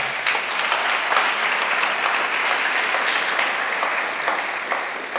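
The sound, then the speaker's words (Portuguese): A Christian audience applauding for the Lord, a dense, steady wash of clapping from many hands lasting several seconds without a break and no voices rising above it. “Dá um aplauso ao Senhor, então.”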